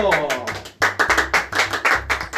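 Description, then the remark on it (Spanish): A brief round of applause, with quick, fairly loud claps from a small audience at a seminary, welcoming a co-host. A voice speaks at the start before the clapping takes over. “Yo quiero que recibamos con un fuerte aplauso”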